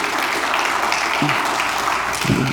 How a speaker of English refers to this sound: I'm clapping for me, not for her, but I hear you.